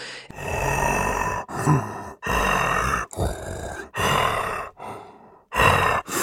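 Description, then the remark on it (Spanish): A voice performs a series of harsh, guttural creature growls and rasping grunts, about seven loud bursts separated by short pauses, unaccompanied, with no speech. “tú nos regalaste unos como gruñidos tan guturales, tan horrorosos, que dije, esto es fascinante, ¿no?”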